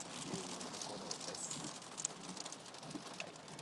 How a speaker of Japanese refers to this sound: あられがすごいですね